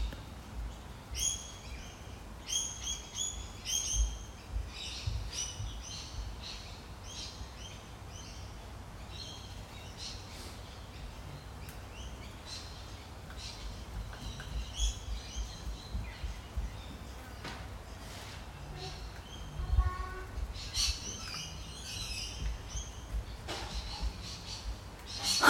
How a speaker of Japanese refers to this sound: しばらく無音にしますので鳥の鳴き声聞いてみてください。